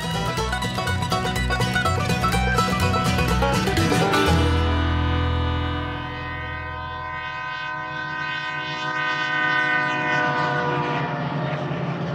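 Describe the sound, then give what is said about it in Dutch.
An Amtrak passenger train rumbles past with rhythmic clatter, then a long, loud multi-tone horn blares and sustains for several seconds as the train rolls on. No one speaks. “Nu is er een nieuwe, moderne trein van Amtrak, de semi-publieke spoorwegmaatschappij dus, voor passagiersvervoer”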